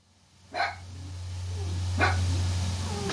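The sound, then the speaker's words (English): A female pet dog barks twice, about a second and a half apart, each bark short and sharp over a steady low electrical hum. No one speaks. “Doing all that barking.”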